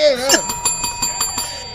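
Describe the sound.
A small bell is rung in a quick series of about six strikes, its bright metallic tone ringing on between hits, fairly loud, after a brief voice at the start.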